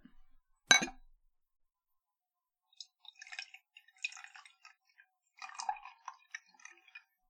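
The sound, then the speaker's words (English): A single sharp glass clink rings out near the start, followed by several seconds of soft, uneven trickling and clattering as a cocktail is poured into a glass, with no talking. “let's just go ahead and get a little pour out of that”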